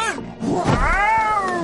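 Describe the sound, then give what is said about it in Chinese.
A loud cartoon monster roar from Xiong Xiaohu, a character turned into a monster with a big pig head, black skin and a pointed tail, as he chases Pi Xiuxiu: a single drawn-out growly howl that swells and rises in pitch before holding steady, lasting under two seconds with no talking. “熊小虎嗷了一声，朝着皮羞羞追了过来。”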